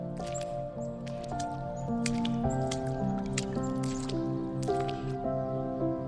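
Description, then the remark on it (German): Wet squelching and dripping splashes as a young fox playfully pads through puddles, coming in irregular bursts over a soft, steady musical background, moderately loud. “Du musst lauthals lachen, so komisch sieht es aus, wie der kleine Fuchs in den Pfützen spielt.”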